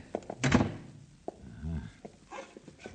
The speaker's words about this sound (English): They shut that door.